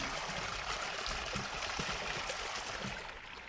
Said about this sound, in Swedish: Och det som porlar här det är ingen skogsbäck utan ett konstruerat vattenfall som följer stigen och trapporna.